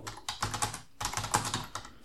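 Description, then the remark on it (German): Quick bursts of computer-keyboard typing, many crisp clacks in uneven clusters with two brief pauses, at moderate volume and with no voices over it. “Ich bin ja hier gerade am Rechner, das muss ich jetzt mal.”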